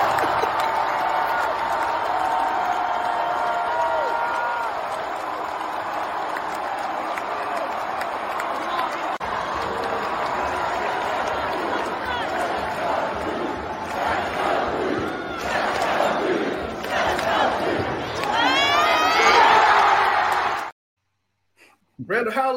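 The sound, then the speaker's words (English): A packed basketball arena crowd at Cameron Indoor Stadium roars loudly and continuously for about twenty seconds after a player makes a shot, with shouts and whistles rising near the end before the noise cuts off abruptly. “Uh, I said, place went nuts.”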